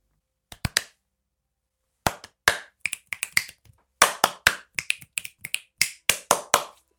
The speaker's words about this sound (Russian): Ты хлопни. Хлоп.